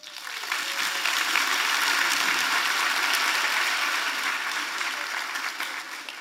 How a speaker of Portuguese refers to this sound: Vire para a pessoa do seu lado, dê uma salva de palmas para ela.